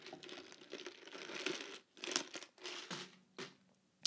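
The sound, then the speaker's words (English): Someone sips ice water from a plastic cup, the thin plastic crinkling and crackling in irregular bursts over about four seconds, with no talking. “It's ice water in a plastic cup.”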